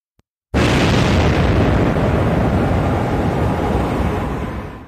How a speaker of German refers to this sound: Hydrogenes, wasserproduzierendes Gas nannte er das knallende Wasserstoffgas. Die Knallgasexplosion war geboren.